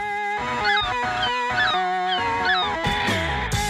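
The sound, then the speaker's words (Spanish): Seagulls squawk loudly, a string of harsh, nasal cries repeating in quick bursts over a few seconds with no one talking. “¿Y qué me diríais si os dijese que las gaviotas no solo están haciendo de las suyas en Avilés, sino que también están atacando Gijón?”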